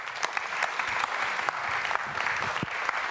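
A crowd claps steadily, a dense wash of many hands with sharp individual claps popping out, sustained at an even level for a few seconds with no voices.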